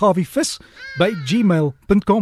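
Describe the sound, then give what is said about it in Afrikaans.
A cat meows in the background, a drawn-out rising and falling cry that overlaps a man speaking close up. “daar's ons ons Harry hallo Harry daar. Jy kan hom hoor in die agtergrond.”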